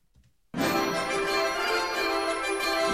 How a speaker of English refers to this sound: We have a new guest alert. Hit that bell,